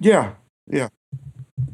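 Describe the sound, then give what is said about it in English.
A voice says a couple of short words, then a quick run of four dull, low thumps as fingers drum on a microphone in an uneven rhythm. “Ooh, someone's drumming on their microphone.”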